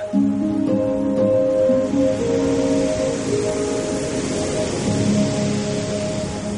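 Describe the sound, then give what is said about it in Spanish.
A steady, full roar of sea waves breaking at Nazaret, the surf rumbling continuously with slight swells in intensity and no voices. “Si hay un sonido que destaca por encima del resto en Nazaret es el sonido del mar.”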